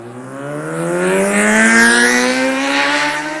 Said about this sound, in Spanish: ahora que pasó la moto ya continúo.